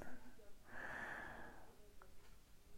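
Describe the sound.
A single firm, breathy snort-like huff lasting about a second, made by a human voice imitating a dog as it sits down, moderately loud, with quiet surroundings before and after.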